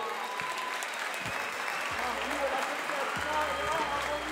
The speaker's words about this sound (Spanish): Tiempo, tiempo, tiempo, tiempo, tiempo, fuerte aplauso a los dos, loco.